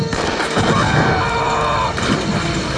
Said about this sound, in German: Carver hastete in die Hütte, um Schutz vor der Explosion zu suchen.